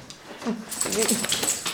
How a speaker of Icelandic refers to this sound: Hundarnir spenntir að fá hans að hreyfa sig